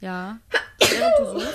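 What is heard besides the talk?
sneeze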